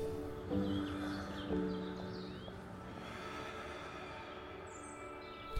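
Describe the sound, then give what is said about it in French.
Faint, scattered bird chirps and tweets over a low, steady tonal hum, with no one speaking. “Les oiseaux et leurs chants vous accompagnent dans cette ascension.”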